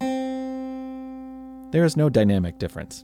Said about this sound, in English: When you hit a key on a harpsichord, a series of mechanisms engage, which results in a finger of sorts plucking the string inside the instrument.